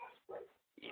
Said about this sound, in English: sorry about the dog barking in the background i don't know uh, one of my oh, kids friends good. is at the door or something